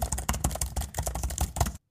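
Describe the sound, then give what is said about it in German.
Rapid typing on a computer keyboard in a studio as a question is entered for an AI, a steady patter of key clicks lasting under two seconds before stopping abruptly, with no voices. “Es ist dann so, vom Prozedere her, ich werde immer wieder zwischen Antworten, zwischen moderieren und wenn dann die konkrete Frage kommt, kommt die Tastatur”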